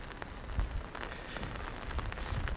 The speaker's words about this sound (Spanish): Buenas noches y bienvenidos a un episodio de Un paseo por Shanghai bajo la lluvia.